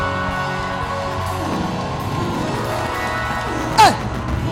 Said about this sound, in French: Est-ce que tu peux offrir une offrande d'acclamation à ton Dieu Je veux entendre des cris de joie. Ça, ce n'est pas des cris de joie. Pour un cri de joie.